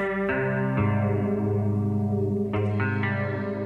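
Sustained, layered electronic tones drone with chorus and echo effects, shifting chords every second or so, forming a hazy, atmospheric instrumental passage with no voices.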